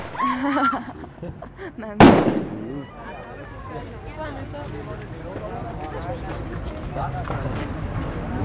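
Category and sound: impact, firecracker exploding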